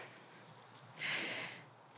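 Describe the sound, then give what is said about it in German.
A faint, steady high-pitched chirring of crickets fills an outdoor field, continuous throughout, with a brief soft rustling swell in the middle. “Hörst du die Grillen zirpen?”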